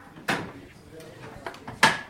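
A signal box lever being thrown to secure the checked route and operate the railway signal: two sharp, heavy mechanical clunks about a second and a half apart, the second ringing briefly with a metallic tone, with faint clicks in between.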